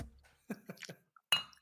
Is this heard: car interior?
no